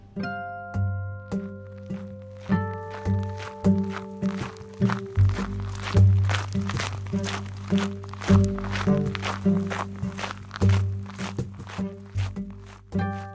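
Steady, regular footsteps of a man walking outdoors crunch along at an unhurried pace as he gets to know his surroundings, each step clear, while soft sustained music plays underneath.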